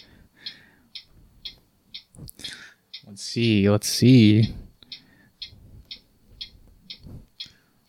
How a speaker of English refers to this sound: And that is the timer.